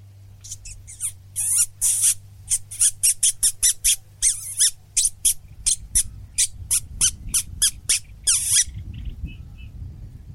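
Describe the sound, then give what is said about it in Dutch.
A reed warbler calls loudly, a rapid run of harsh, chattering 'kiet kiet' notes for about eight seconds before falling quiet, over a low steady background hum. “Hey, nu hoorde ik wel best wel goed dat karakait kiet kiet.”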